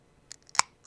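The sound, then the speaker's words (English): A can of Voodoo Ranger Juice Force hazy imperial IPA cracks open: a soft click, then one sharp, crisp pop with a brief fizzy hiss, followed by a faint tick in an otherwise quiet moment. “Oh yeah, that's that's the sound of a healthy can of.”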